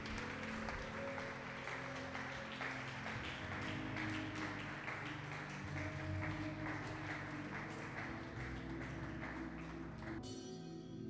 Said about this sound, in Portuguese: Dá uma salva de palmas ao Senhor se você crê nisso.